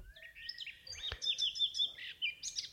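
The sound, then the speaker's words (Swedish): Several birds chirp and tweet in a forest, in quick, overlapping bursts, high bright calls repeating steadily, with a single soft knock partway through and no one speaking. “Ute i skogen kvittrade fåglarna.”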